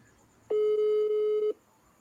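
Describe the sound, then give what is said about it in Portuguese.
A single steady electronic ringback tone of an outgoing phone call on speakerphone sounds for about one second, clear and moderately loud, with a thin, slightly tinny phone-speaker quality, then stops into quiet background. “Vai, deu certo? Vamos lá. Viva a voz, viva a voz. Tá ouvindo? Tá dando certo, tá dando certo.”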